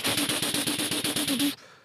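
A neighbour's hammer drill rattles loudly in rapid, even pulses over a low droning hum for about a second and a half, then cuts off abruptly, leaving only faint background noise.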